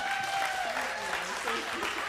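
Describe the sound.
A church audience at a baptism breaks into steady applause for a person being baptized, a dense wash of many hands clapping at an even level, with voices calling out faintly underneath.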